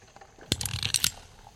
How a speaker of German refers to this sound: Bevor sie den ersten Schuss abgeben, spannen sie den Schlaghebel. So.